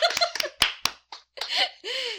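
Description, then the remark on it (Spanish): A short burst of hand clapping, roughly five or six quick claps in an uneven rhythm, followed by a few seconds of voices and light laughter. “Bravo, Según aplausos. Nuevamente.”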